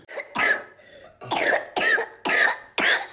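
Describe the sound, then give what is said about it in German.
A series of about five harsh, forceful coughs in quick succession, loud, each a short explosive burst with brief gaps between, no talking. “Husten, Fieber, Halsschmerzen, Appetitlosigkeit, keinen Durst.”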